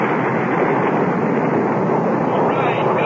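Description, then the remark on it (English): Rocket engines fire at liftoff, a loud, dense, unbroken roar with a crackling, rumbling texture that holds steady at full strength throughout, with no voices or pauses. “All engines firing.”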